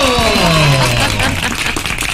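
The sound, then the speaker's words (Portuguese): A burst of applause fills about two seconds, dense and steady, with a few gliding tones sliding downward under the clapping at the start before fading out. “Tá Palmas para aí.”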